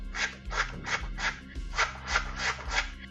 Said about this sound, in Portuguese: ela toma as cartas dela na mão dela, começa a embaralhar.